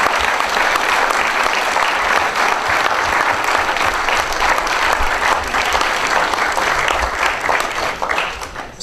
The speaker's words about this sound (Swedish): Ska vi ge dem en god applåd?